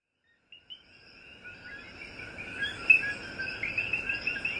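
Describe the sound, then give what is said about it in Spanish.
A dense chorus of coquí frogs, joined by crickets, calling at dawn in the rainforest of El Yunque National Forest, Puerto Rico. High chirping notes overlap into a steady shimmering wash that swells in after a quiet start, with no voices. “Estamos escuchando este amanecer aquí en el Yunque. vamos a disfrutar el sonido del coquí que fíjense que también está junto con los grillos en este amanecer tan precioso que todos estamos disfrutando.”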